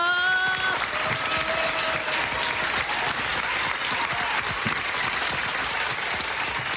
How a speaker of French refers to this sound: on le sent, le public qui applaudit. Allez, vous êtes là!